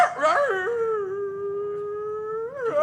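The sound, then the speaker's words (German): Someone imitates a dog: a few short yelping barks lead into one long, loud, drawn-out howl that holds steady and then rises at the end, with no talking. “Ich bälle, dass alle Leute zusammenlaufen.”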